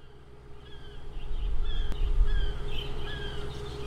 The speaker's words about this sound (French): Autre chose qui m'a choqué, il y avait des mouettes en pleine ville.